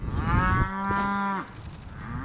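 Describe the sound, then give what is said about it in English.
A single long, low moo from a beefalo, a part-beef, part-buffalo animal, among about 25 grazing female beefalo with calves on the 650-acre A&K Ranch in south central Missouri near Raymondville. It is loud, lasts under a second, with outdoor background noise before and after. “About 25 female beefalo, most with a calf nearby, are grazing on the 650 acre A&K Ranch in south central Missouri near Raymondville.”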